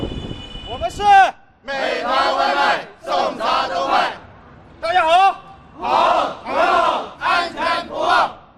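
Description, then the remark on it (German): A group of food delivery workers shouting their usual district morning roll call in unison, counting off: loud chanted bursts of voices in a rhythmic call-and-response pattern, about eight or nine short phrases in a row. “Zuerst der übliche Bezirksmorgenappell.”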